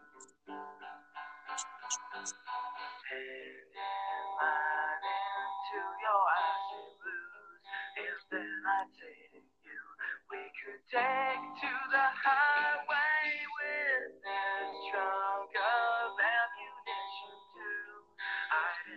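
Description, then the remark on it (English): A six-minute song played back from Spotify up to about 43 seconds, a wavering sung vocal melody carried over fuller accompaniment, fairly loud throughout with a brief dip partway through and no one talking over it. “And then we can listen to the first, let's say, 30 seconds to a minute of the song.”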